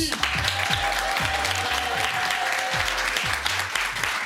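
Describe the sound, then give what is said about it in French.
A crowd claps in dense, steady applause that fills the whole stretch, with a regular low thumping beat pulsing underneath. “Ça va très bien l'applaudissement applaudissement c'est pas mal, c'est pas mal.”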